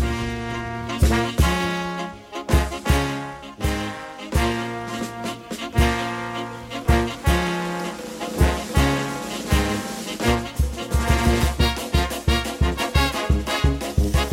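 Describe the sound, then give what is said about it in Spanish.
A lively charanga brass band from Zaragoza plays an upbeat, driving tune with punchy horn blasts over steady percussion, loud, with no voices. “Son una charanga típica, con llenas de metales y con mucha marcha.”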